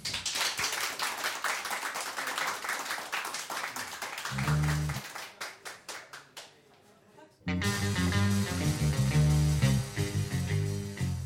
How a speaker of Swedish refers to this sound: och tackar dig också med en varm applåd.